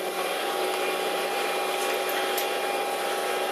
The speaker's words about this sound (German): Wer übrigens nachts im Hotelzimmer in Manhattan liegt und sich über den mörderischen Lärm draußen wundert, nachts geht's rund auf der Straße. Da klingt New York nach Müllwageneinsatz.